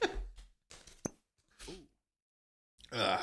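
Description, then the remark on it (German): A single sharp pop as a cork comes out of a bottle of liquor opened for a nightcap, set among soft handling rustles, a brief murmur of voice and a hissy rush at the end. “Korken.”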